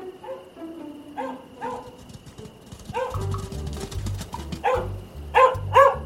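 An Australian shepherd named Philibert, white and beige with grey spots on its ears, barks repeatedly in short, sharp bursts as it comes running at full speed, starting moderately distant and growing louder and closer toward the end, over a low rhythmic thumping in the background.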